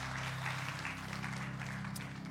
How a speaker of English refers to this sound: Can we just applaud for everybody that just took a moment to stand up or also said, I'm seeking God with my life? Man, that's amazing.